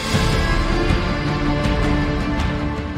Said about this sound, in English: And as for the track you're listening to right now, it was created specifically for the Buds Pro 2 by a world famous composer whose work I adore.